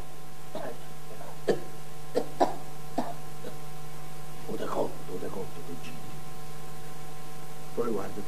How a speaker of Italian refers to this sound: A tosse.